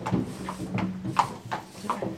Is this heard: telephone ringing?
no